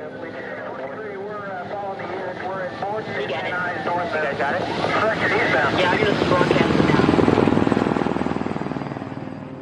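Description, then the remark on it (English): A police helicopter, joining the high-speed chase of Rodney King on a Los Angeles freeway, has a chopping rotor that grows louder as it passes overhead, peaking near the end before beginning to fade, with voices faintly audible underneath. “When police asked 35 year old Rodney King to pull over with his two friends in the car, he refused, leading to a high speed chase as several police cars and helicopters joined the pursuit.”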